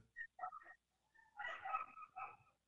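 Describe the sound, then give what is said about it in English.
A dog barks faintly in the background: a few short, quick yaps followed by a longer, whiny burst of barking, with no talking over it. “Your, your dog's making off in the background?”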